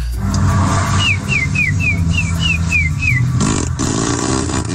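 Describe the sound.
A person whistles a thrush-like song: a run of eight quick, repeated rising-falling high notes in a steady rhythm, heard over a loud, continuous low rumble like an engine.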